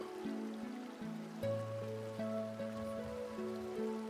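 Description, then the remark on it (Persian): Steady rain patters on a hard surface in a soft, continuous hiss, blended with gentle sustained musical tones; no one speaks. “هرچه بیشتر عمیق میشین در این تصویر بیشتر آرام و ریلکس میشین و حس عمیق تری از آرامش دارین با این باران ریلکسیشن”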